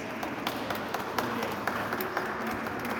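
A crowd applauds steadily for several seconds, a dense wash of overlapping claps with sharper individual hand claps standing out now and then, at a moderate, even level.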